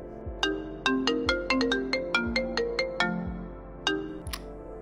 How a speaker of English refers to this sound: I heard my phone ring. Instinctively, I turned my recorder on.